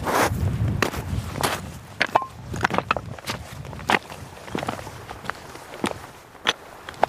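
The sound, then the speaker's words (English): Boots tread over rough schist and granite, a steady run of crunching, scraping footfalls with irregular timing, some sharper clacks of stone, and no one speaking. “I had the audio gear with me, and um, I was picking up all the sounds of, of our boots and the schist and granite”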